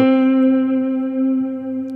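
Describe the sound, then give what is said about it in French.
A distorted electric guitar, picked hard, holds one loud note that rings out steadily with a thick, buzzy tone for about two seconds, with no talking. “Si vous attaquez fort, il faut que vous appuyez fort, sinon. Là par exemple.”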